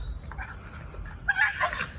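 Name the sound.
dog whimpering and yipping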